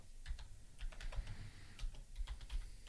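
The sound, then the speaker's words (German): Quick bursts of keyboard typing as a search query is entered into Google, a run of crisp key clicks in uneven clusters with short pauses, fairly quiet and with no one speaking. “Wenn man so halb den tippt, kommen immer lustige Sachen bei raus.”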